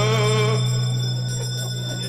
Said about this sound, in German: jetzt läuten wir die Glocke zur letzten Runde. Letzte Runde.